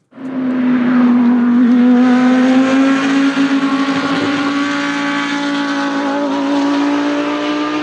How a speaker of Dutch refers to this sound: Dus de Lamborghini Huracan, hè? GT3. Ja, de racer. Ja, en eh, zit hij dan dag in dag uit zit hij in die herrie.